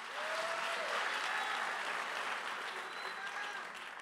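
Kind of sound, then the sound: crowd, audience clapping hands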